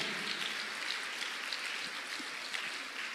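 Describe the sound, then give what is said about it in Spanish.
An audience applauds for God, the King, many hands clapping at once in a dense, continuous wash of sound that holds at an even level throughout, with no voices audible. “Si es usted pueblo de Dios, le da fuerte y grande el aplauso al Rey.”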